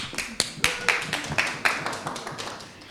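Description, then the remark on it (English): A brief burst of audience applause: many hands clapping in a quick, irregular patter with sharp slaps, moderately loud, fading slightly over a few seconds with no one speaking. “Give him a short applause.”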